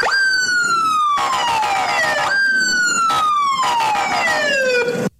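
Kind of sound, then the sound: vehicle, police car siren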